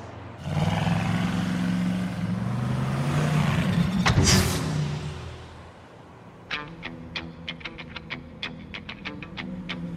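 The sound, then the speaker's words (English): A car engine roars, its rumble dropping in pitch as the car drives off and fades out, followed by a series of quick, sharp clicks and ticks. “That car is sensitive. I mean, $4,000 just drove off.”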